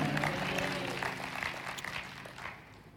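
An audience claps and cheers in a steady, dense burst of applause with voices calling out underneath, loud at first and gradually fading over a few seconds.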